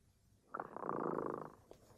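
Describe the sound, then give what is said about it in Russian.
The cat Tremota purrs in a single steady, rumbling stretch lasting about a second, with a soft pulsing texture, heard alone with no talking. “Кот Тремота запел свою песенку.”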